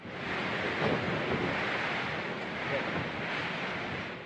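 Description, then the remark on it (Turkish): A steady, roaring wall of wind noise buffets the microphone while waves crash and surge, a dense, continuous storm rumble with no clear breaks, loud throughout; Hurricane Julia, a Category 1 hurricane with sustained winds of 120 km/h. “Julia kasırgasının saatte 120 kilometre hızında sürekli rüzgarlara ulaştığı belirtildi.”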